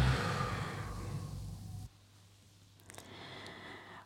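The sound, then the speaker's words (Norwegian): A long, audible breath during a breathing exercise, in through the nose and out through the mouth: a steady airy exhale for about two seconds, then quieter breathing with a few faint soft sounds. Fairly quiet, with no talking. “Og så puster vi inn gjennom nesa. Og ut gjennom munnen.”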